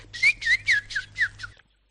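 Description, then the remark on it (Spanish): Someone whistles a quick run of about six bright, chirpy notes imitating small birds, each with a little swooping trill, clear, then it stops. “Me cuentan mis pajaritos. Ah, pajaritos.”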